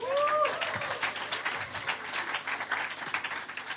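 A crowd breaks into steady applause, dense overlapping claps at a fairly even loudness throughout, with a brief whistle-like rising tone at the very start.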